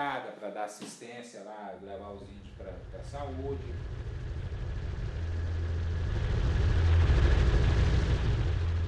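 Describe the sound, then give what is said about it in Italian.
A voice speaks briefly, then the heavy thumping roar of Ibama helicopters flying overhead across an indigenous reserve in the Amazon, guided by Kayapo warriors, swells in and takes over, growing louder for several seconds. “Due mesi dopo il primo incontro con i Kayapos, gli elicotteri dell'Ibama sorvolavano la riserva indigena, guidati quella volta dai guerrieri Kayapos, che per scovare gli invasori non avevano certo bisogno dei satelliti.”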